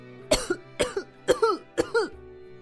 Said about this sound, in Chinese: 贝料一头冲进鸟窝，被扬起的草灰呛得直咳嗽。